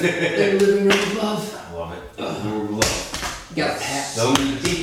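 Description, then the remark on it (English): Several loud slapping pats as men thump each other's backs while hugging, landing at irregular intervals while people keep talking cheerfully over them. “I said, when men hug each other, they they pat, they, they bang each profound, other's back right?”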